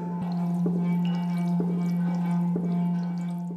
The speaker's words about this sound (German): Das Wasser fängt jetzt durch die Vibration, die wo ich erzeuge, an zu sprühen. Wenn ich jetzt hin und her ziehe, entsteht quasi eine Differenz bei den Wellen und die bringt dann wiederum das Wasser hier zum Sprühen.